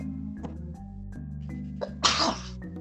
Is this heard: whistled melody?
no